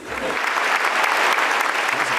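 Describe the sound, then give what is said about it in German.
An audience claps steadily after a politician's joke, a dense, continuous wash of many hands that stays fairly loud and even throughout, with no voices standing out. “Also, gefreut über die Lacher und Applaus.”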